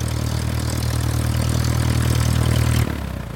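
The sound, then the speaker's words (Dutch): A steady, droning aircraft propeller engine runs loud, then cuts off abruptly near the end, leaving a brief fading whir as the propeller spins down to a stop. “De propeller draait nog even door en staat dan stil.”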